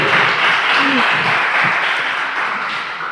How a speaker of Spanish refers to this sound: Este, gracias, se dio un aplauso